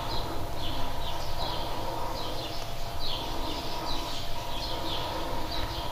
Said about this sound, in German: Im Hintergrund hört ihr die Vögel.